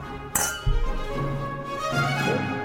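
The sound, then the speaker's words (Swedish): A single bright clink of glasses touching in a toast, fairly loud, followed by a soft lingering ring and low background rumble, with no talking. “Skål som är fan!”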